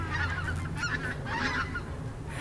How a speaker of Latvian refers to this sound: pavadām vienu dzērvju kāsi. Kaut kādas pārpasaulīgas skumjas un vēlme apstāties ir šajā brīdī. Tā te ir kalāčos. Dzērvis? Dzērvis. Jā, lido prom.